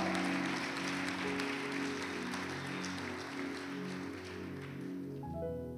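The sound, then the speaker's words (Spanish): An audience applauds loudly and steadily, a dense wash of clapping like heavy rain, with sustained organ-like tones humming underneath throughout. “Se va a aplaudir, aplauda fuerte.”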